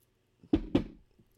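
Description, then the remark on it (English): Two quick, solid knocks on a wooden surface, fairly loud, spaced about a quarter second apart, each with a short hollow resonance. No voices. “Knocking okay. on wood.”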